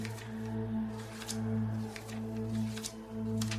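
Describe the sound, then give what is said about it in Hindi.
Pages of a book turning after its cover is lifted open, in a string of soft papery flips and rustles, irregularly spaced, set against a steady low musical drone with no talking. “जब एक natural action में मैंने किताब का कवर जैसे उठाकर खोलते हैं वैसे ही किया और वो खुल गई और उसके अंदर पन्ने पलटने लगे”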